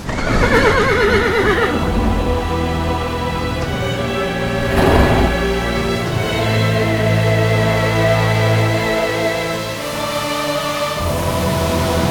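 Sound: horse neighing and whinnying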